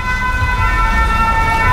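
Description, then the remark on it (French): Busy city street traffic with many cars on the cours Gambetta rumbles steadily, with a sustained, piercing siren-like tone cutting over the engine noise throughout. “Il y a beaucoup de voitures là hein, quand même.”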